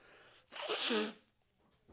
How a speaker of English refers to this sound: Everybody says I fucking blow my nose comical. Is that true? Here's how I blow my nose.